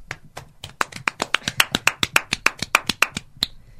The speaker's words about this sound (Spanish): vamos a recibirlos ya mismo con un fuerte aplauso.